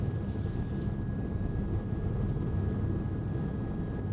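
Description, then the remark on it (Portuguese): A steady, droning news helicopter engine and rotor roar fills the whole recording, dense and low-pitched with a constant thrumming texture, with no voices over it, as the helicopter flies over Avenida Radial Leste in the east zone of São Paulo, Brazil, covering an accident between a car and a motorcycle. “Do helicóptero da Record TV, um acidente entre um carro e uma moto na zona leste de São Paulo.”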